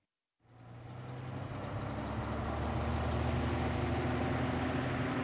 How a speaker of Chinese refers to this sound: 搬家的日子到了，天一亮，搬家卡车就开来了。他们吱扭吱扭、摇摇晃晃地爬上车道。